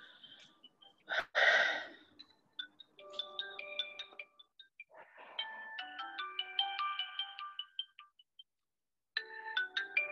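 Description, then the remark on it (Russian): A mobile phone ringtone plays a bright, repeating electronic melody in several bursts with short pauses, preceded by a sharp breathy gasp; no one speaks. “Я пойду сейчас найду чей-то телефон, выключу его, а ты пока довыдыхай.”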